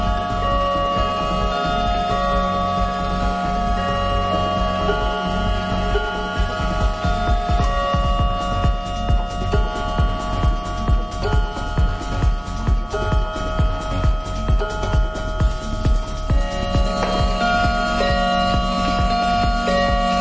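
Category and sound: household object, clock ticking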